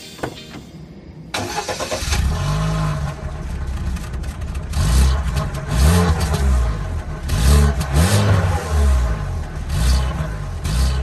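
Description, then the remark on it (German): The engine of a new Russian car from model year 2020 cranks and catches, then revs up and down repeatedly in loud surges, with a few sharp backfire pops mixed into the roar. No one speaks. “Auch wenn man es jetzt nicht glaubt, das ist tatsächlich ein neues Auto.”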